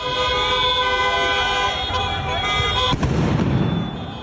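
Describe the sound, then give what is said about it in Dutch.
A rowdy street celebration at the Jonk Bloedplein in The Hague after a win by the Dutch national team: car horns blare continuously and loudly, then a sharp firework bang and crackle bursts out near the end as revellers set off fireworks, with indistinct voices in the background. “Groepen feestvierders stichten brand op straat, staken vuurwerk af en bekogelden agenten met stenen.”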